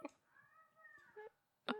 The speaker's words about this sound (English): Next time, you should just meow at her like she meows questions. meow, meow, meow, meow, meow, meow.